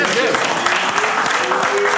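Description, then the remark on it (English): A burst of steady, dense, fairly loud clapping from several people, continuing for the full two seconds with voices faintly mixed underneath. “Do I deserve a clap for that? Hell yeah!”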